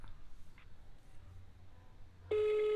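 After a stretch of quiet hum, a loud, steady telephone ringback tone suddenly begins near the end as a phone call connects. It holds unbroken and clear, with no one speaking.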